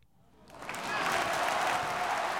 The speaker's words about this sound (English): Uh, so anyway, Kevin Durant goes out early in this game, and the fans respond by cheering because you know, do we have audio? I think we have some audio here of Raptors fans when Kevin Durant uh, went down.